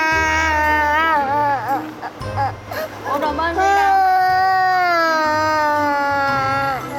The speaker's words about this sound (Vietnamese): Ủa, gì vậy? Ủa gì vậy? Tiếng khóc này là sao?